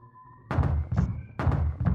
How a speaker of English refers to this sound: Knock, knock, knock. Who's there? Faith, here's an English tailor come hither for stealing out a French hose. Come in, tailor.